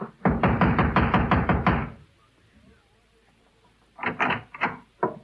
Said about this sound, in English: Across the hall, the door to apartment number four said manager. I walked over and started knocking again.